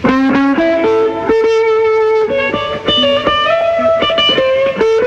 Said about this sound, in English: The sound that's characteristic of electric guitars is the wow wow effect that you make with the pedal. I have to kick this to start it. Could you play some and explain how it's done? As I rock the pedal, you can hear it through the amplifier.